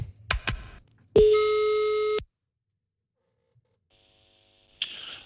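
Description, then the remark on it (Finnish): A few sharp clicks, then a single steady electronic ringing tone from a telephone line lasting about a second, followed by near silence and a brief click as a radio call to the chairman of the Seinäjoen Painimiehet wrestling club connects. “mä tarjoilen tähän teille seuraavaksi ja Jere sulle tauolle koko puhelun Seinäjoen painimiehen puheenjohtajan”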